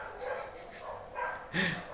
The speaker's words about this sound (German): ja, da lachen sogar die Hunde im Hintergrund, ist klar.